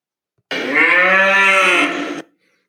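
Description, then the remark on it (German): A single loud, drawn-out cow moo lasting nearly two seconds, rich and harmonic with a slight rise and fall in pitch, heard alone; played as a sound effect for Bertha, the 'bureaucracy cow', introducing the topic of bureaucracy. “Bertha ist meine Bürokratie-Kuh und, und äh, läutet ein äh, deine Lieblings- in aller Anführung Bürokratie.”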